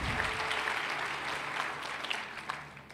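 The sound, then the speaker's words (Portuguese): An audience applauds the name of Jesus together, a dense, steady wash of many hands clapping that holds for a few seconds before easing slightly at the end. “Aplauda o nome de Jesus, querido.”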